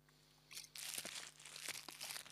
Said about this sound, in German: Laura raschelt gerade mit ihrer Tempotüte am Mikrofon